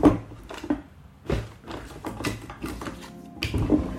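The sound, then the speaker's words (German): A desk drawer slides open and items inside are shuffled and clattered about while someone looks for a business card, with a few sharp knocks and scrapes over a few seconds, no one speaking. “Ich muss mal ganz kurz in meine Schublade gucken.”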